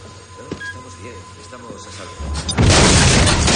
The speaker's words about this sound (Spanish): Las hace explotar derribando la puerta y entra acabando con el resto de agentes y los asesores del mandatario.